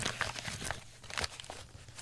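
Papers are shuffled and pushed aside, a run of soft crinkling rustles and brief scraping sweeps with no one speaking.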